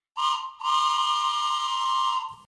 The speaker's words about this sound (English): I heard a choo choo! That means my friend Tilly is coming into town on the Bible train.